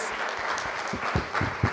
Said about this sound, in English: such a round of applause and thanks because not only did they come and tell you about you know their life and their work and what they do